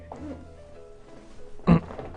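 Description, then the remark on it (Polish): A single short, low creak from an armchair, like a brief groaning squeak, that stands out fairly loudly near the end against a faint background murmur. “No nie właśnie, to jest dalej fotel.”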